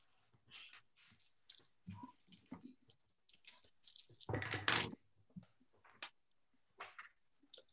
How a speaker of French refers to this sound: échappé deux dés, je vais en prendre deux autres.